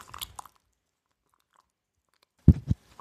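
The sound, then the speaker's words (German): Wet plaster squelches softly as it is stirred into a paste with a little water added: a quick cluster of faint smacking sounds, a long pause, then two louder, sticky squishes. No one speaks. “Da kann noch ein bisschen Wasser drauf. noch ein Schlückchen. Ähm, man hört es vielleicht schmatzen.”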